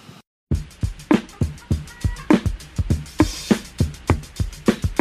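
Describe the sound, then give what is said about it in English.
A funky drum loop sampled from a funk record, with punchy kicks and crisp snare hits in a steady, syncopated groove, slightly gritty like it was lifted from an old vinyl record, playing loud and alone after a brief silent gap. “I sampled a drum loop from a record by ….”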